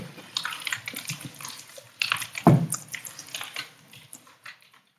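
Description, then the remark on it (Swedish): Running water splashes and trickles steadily, with irregular drips and small splashes throughout and a brief louder gush near the middle, fading out toward the end, heard in the background of an emergency phone call. “Är du verkligen under sos samtalet man hör vattnet på ett ställe.”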